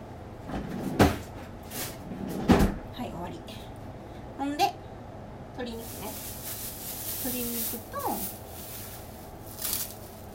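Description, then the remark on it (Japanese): A freezer door thumps open and then shuts a moment later as a packed Ziploc bag of food is put in to freeze, two sharp knocks followed by quieter rustling, with a voice murmuring faintly in the background. “これをこれはこれで冷凍庫に入れて見てジップロックパンパンになったでも入れといて冷凍しといたらね繊維が壊れてうん、まあ、生で食べるには向かへんけど煮込み料理とか炒め物にはそのままさっと入れられるんでなるべく平らにして冷凍しておこうと思います”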